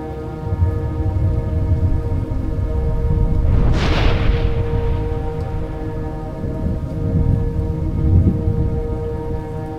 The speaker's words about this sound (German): Riesige, unsichtbare Wasserkübel ergießen sich über das ganze Land. Mit untröstlicher Stärke schüttet die Natur ihr inneres Wesen über uns aus. Blitz und Donner haben sich dazu gesellt.